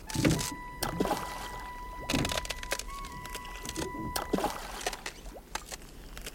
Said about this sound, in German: Du ruderst gut. Willst du? Ach, oh, ruder du nur. Ich kann gut hier sitzen und dir zusehen, wie du dich abmühst.